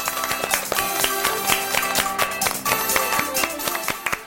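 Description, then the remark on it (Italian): A group at the 'Stato in scena' summer camp applauds with dense, steady clapping that keeps going for several seconds at a moderate level, with some tonal sound faintly underneath. “Un altro applausone!”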